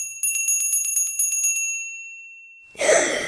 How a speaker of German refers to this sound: Plötzlich hören sie ein Glöckli läuten.